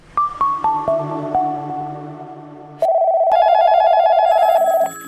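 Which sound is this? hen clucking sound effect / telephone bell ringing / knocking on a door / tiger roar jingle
telephone bell ringing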